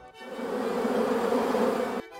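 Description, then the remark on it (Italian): A steady, dense buzzing of a man's honeybees, like a swarm, in a quiet place far from traffic and cities, holding at an even level for about two seconds before cutting off abruptly. No voices. “Il ronzio delle sue api.”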